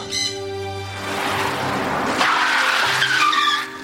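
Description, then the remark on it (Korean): Car tires screech loudly under sudden hard braking, a piercing squeal that turns into a rough, grinding skid lasting several seconds, with no talking. “고막을 찢을 듯한 괴음을 내며 급정관 자동차와 다르지 않았다.”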